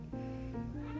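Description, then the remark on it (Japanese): A cat that seems to want to be played with meows in a drawn-out, wavering call that fills about a second, fairly clear, with no speech over it. “なんか猫がすいません何遊んでほしいみたいですねちょっと待ってて”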